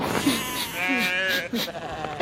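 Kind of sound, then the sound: animal, sheep bleating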